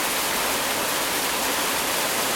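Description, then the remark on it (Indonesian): Heavy rain pours down in a steady, dense hiss with no pauses, loud, like a downpour drumming on surfaces. No voices are heard. “ya betul banget kalau kalian dengar suara hujan di sini emang ya di sini sedang hujan gede banget.”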